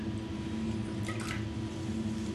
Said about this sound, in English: drinking a little bit of sparkling water here.